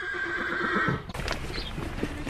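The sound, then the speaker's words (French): A horse or pony gives a loud, high whinny that shakes and trails off, followed by rustling and shuffling sounds with a few soft hoof-like clops, at the Écuries de la Gare stables in Saint-Martin-d'Audouville, among fields and trees. “Ah, et à côté des poneys, il y a aussi des Shetland.”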